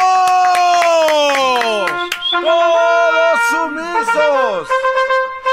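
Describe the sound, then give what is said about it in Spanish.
Someone mimics a seal, giving a run of loud, wavering, honking barks that slide up and down in pitch, with a few sharp claps mixed in at the start. “La foca les dice, todos sumisos.”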